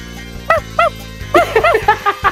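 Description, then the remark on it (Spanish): A small dog yaps: two separate barks, a short pause, then a quick burst of about seven sharp, high-pitched barks in a row, with a steady hum underneath. “Así que ahí no ocupo mi jefe No, ocupo mi perro.”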